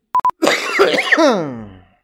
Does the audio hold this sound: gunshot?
no